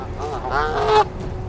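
A goose stowed away on board, in the back, lets out one drawn-out, nasal honk that rises and wavers for about a second, loud, then stops abruptly, leaving only faint background noise.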